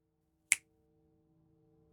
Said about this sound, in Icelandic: All fjölskyldan lág og hlustaði og þá tók yngri sýsturinn, Katie, upp á því að prófa að herma eftir hljóðinu með því að smetla fingrum.